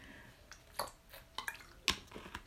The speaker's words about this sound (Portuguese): Tive fazer uma pausa. Deixem-me beber água, esperem.